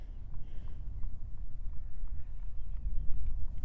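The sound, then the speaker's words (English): Faint, steady clip-clop of hooves from a horse-drawn Amish cart, the third to pass, in the distance, a soft regular clatter almost buried under a constant low rumble of wind and background noise. “Amish cart number three.”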